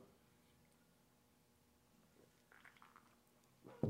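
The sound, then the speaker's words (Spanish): A quiet stretch gives way to soft slurping sips of beer and a wet gulp, ending with a louder swallow or thud. Nobody speaks. “Doy un trago para darme valor.”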